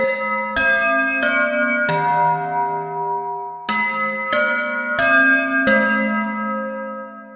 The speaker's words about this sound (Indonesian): Bel pulang sekolah pun berbunyi.